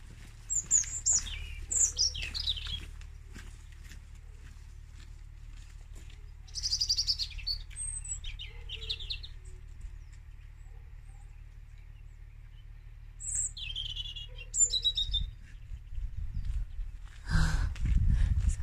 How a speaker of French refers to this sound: Regarde cet oiseau comment il chante là.